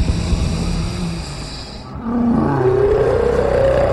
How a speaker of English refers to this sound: It roars at me, and I can feel its flame like acid in the wound, but I will not be moved.